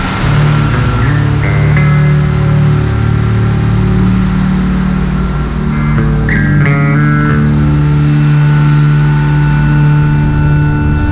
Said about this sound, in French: le bateau il est de 91. Hein. Et euh, là, on a les, les, groupes électrogènes par exemple qui sont euh, d'origine, qui hein. sont à 60 000 heures et quelques. Euh. c'est des vieux diesels mais qui fonctionnent très bien.